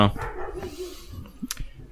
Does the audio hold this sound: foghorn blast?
no